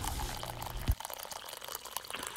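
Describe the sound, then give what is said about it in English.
Hot coffee pours steadily into a cup, a bubbling, rising trickle that cuts off abruptly under a second in, leaving faint drips and quiet background noise. “So pour yourself a hot cup and enjoy the show.”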